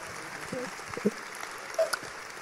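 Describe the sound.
Steady, fairly soft applause from an audience, a dense patter of clapping that holds evenly throughout, with a few faint voices murmuring beneath it.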